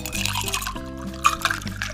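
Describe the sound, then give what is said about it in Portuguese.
Water pours steadily over ice into a glass for about two seconds, a bright splashing trickle with a few sharper clinks, over a low humming tone. “Ela queria ali tomar um vinho com o pessoal, mas em vez disso, foi tomar água com gelo.”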